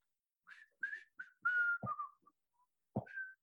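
person whistling

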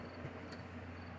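crickets chirping outside

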